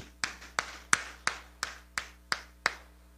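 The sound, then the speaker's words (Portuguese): An audience clapping together in a steady, even rhythm: eight crisp, bright claps spaced about a third of a second apart, with no voices over them. “Vamos aplaudi-lo por isso?”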